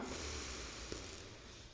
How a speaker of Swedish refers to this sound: För det är så här, andas in genom näsan, räkna till fyra.